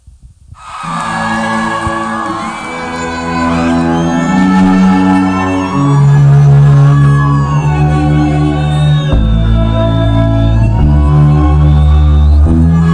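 Instrumental intro of a rap song plays loud: layered synth chords over deep, sustained bass notes, with sliding, wailing tones drifting above, building steadily without any vocals.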